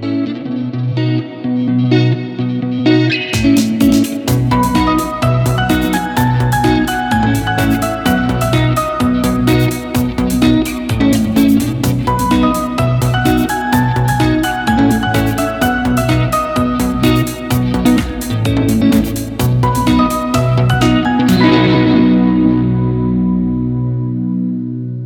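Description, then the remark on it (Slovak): A short instrumental jingle plays alone, loud and steady, with a driving beat, bright synth melody lines and heavy effects, ending with a quick fade after about twenty seconds. “Po zúške sa zase počujeme.”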